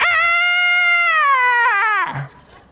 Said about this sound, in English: her signature cheer is this i think they called it the screech